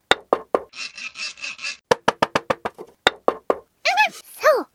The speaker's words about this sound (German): Aus der Erfinderwerkstatt von Professor Weismacher hörte man es hämmern und sägen.